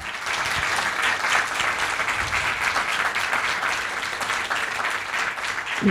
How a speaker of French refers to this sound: Je pense on peut applaudir tout le monde, les intervenants, les organisateurs.